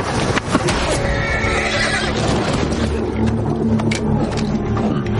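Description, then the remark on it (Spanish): Parsons' horse whinnies loudly and shrilly as Carver shoots it with his rifle, its cry wavering over several seconds, with a brief sharp burst near the start and the clatter of hooves mixed underneath. “Dispara la montura de Parsons y el animal cae muerto.”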